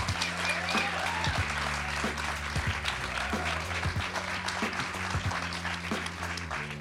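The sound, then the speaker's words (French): A large live audience at the Club de l'Étoile claps and cheers steadily throughout, before a screening of the restored 3D version of Terminator 2. A dense, continuous wash of applause with low rumbling underneath and scattered whoops rising out of the crowd. “n'y a pas que nous que ça met en joie, visiblement.”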